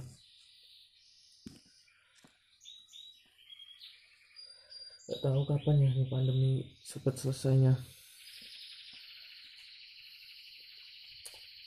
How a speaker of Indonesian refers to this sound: Aduh, suara burung.